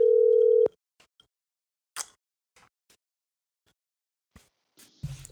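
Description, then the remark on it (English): A loud, steady telephone tone sounds for under a second and cuts off, followed by scattered soft clicks and ticks as the call connects, with no one speaking. “Let's get my brother on the phone, man.”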